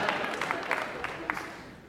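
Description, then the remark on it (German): Several hand claps, about six, come at an uneven, loose rhythm and slow down toward the end over a soft background hum. “Äh, also ich, ich finde das Klatschen schwieriger als den Gag.”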